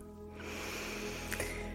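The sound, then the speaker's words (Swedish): A long, deep breath drawn in through the nose during a guided breathing exercise, a steady airy hiss that swells within the first half second and holds for over a second, with no talking. “Andas in”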